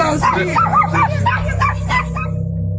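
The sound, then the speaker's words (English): Several short, high-pitched yips and whimpering barks from two upset puppies in a neighbor's home come in a rapid, agitated series over a steady low hum, fading out near the end. “A strange shadow can be seen quickly moving back and forth in Sarah's neighbor's home, freaking out everyone and even seeming to upset their two puppies.”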